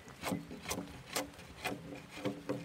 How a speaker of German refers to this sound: schert mit einer Axt die Rinde von einem Baumstamm. Es ist nasskalt und es riecht nach frischem Holz.